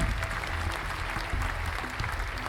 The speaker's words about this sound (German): Nochmal Applaus hier für unseren Kandidaten heute Abend. Sehr schön.